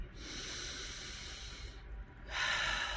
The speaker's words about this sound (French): Et vous avez vu ce que je viens de faire Je viens de respirer, regardez. Je, vous le refais au ralenti.